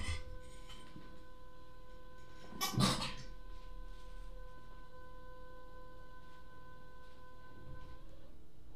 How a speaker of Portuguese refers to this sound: Ah, é geladeira. Agora faz sentido, agora faz sentido.